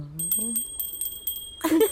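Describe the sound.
A small bell on a sheep jingles in a quick, irregular series of bright, ringing shakes. A voice is heard briefly at the start and another sound rises near the end.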